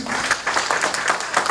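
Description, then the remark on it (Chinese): Steady applause from an audience at a company business training class in Kaohsiung, thanking people, many hands clapping in a dense, continuous patter with a bright, crackly texture, fairly loud and sustained throughout with no voices. “那，呃，我要用，呃，请大家帮我用热烈的掌声来感谢以上我想要感谢的人。”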